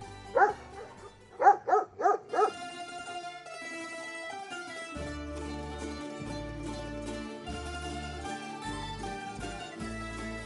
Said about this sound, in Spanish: Al vernos nos hace saber su alegría, expresándola con ladridos sueltos nos mueve la cola